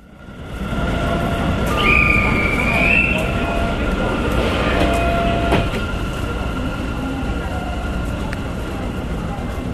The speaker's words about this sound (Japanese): さて、えー私も乗りましたこの MRT の空港線なんですがねやはりねこの空港と台北市内を35分で結ぶっていうのはですね